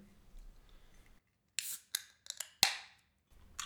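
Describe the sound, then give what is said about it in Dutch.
A can of New England IPA from Proof, a Florida brewery, being opened: a few sharp metallic clicks and scrapes at the tab, then a crisp pop with a brief fizzing hiss, with no talking over it. “Ja, dus maak hem open.”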